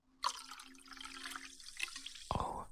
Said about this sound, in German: Ich habe mir gerade Wasser eingeschenkt, Leute. Das darf man ja eigentlich nicht während der Aufnahme.